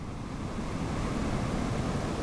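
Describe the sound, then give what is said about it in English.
Steady, rumbling surf washes over a beach on the Mediterranean about 10 miles from Gaza City, where long pipes spew brown water into the sea. A dense roar of ocean waves fills the short stretch at an even loudness, with a touch of wind and no voices. “Here on this beach, long pipes spew brown water into the ocean, just 10 miles from Gaza City.”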